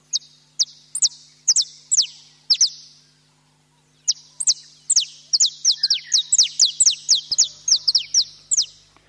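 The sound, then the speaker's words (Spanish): Small birds chirp in quick, bright bursts of high tweets, a short pause, then a denser run of rapid calls, clear with a faint low hum beneath; the birds are at a tower window frame on a grey day, some flying, others perching. “Los pajaritos cantan, algunos vuelan, otros se posan en el marco de la ventana de la torre.”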